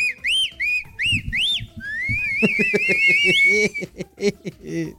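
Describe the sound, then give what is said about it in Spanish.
A sound-effect whistle gives a quick run of short swooping chirps, then one long wavering rising whistle, while people laugh and talk underneath toward the end. “Quiero el chiflidito. Ahí le va, cómo no.”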